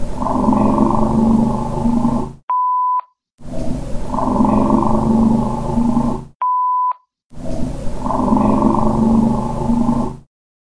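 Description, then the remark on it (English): A loud, rumbling car engine drone plays in three roughly two-second bursts, each separated by a short, sharp electronic beep and a moment of silence. “you can definitely hear a car in the background.”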